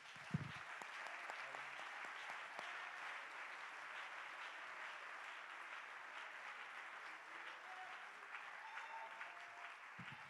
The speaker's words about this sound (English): Let's clap our hands and give him praise one more time.